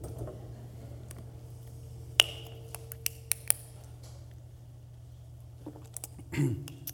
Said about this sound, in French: Laissez-moi prendre une petite gorgée d'eau.